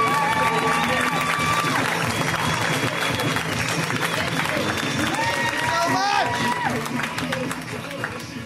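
An audience at a show claps and cheers loudly and steadily for several seconds to welcome a guest, with whoops and shouts rising above the dense clapping before it eases off slightly at the end.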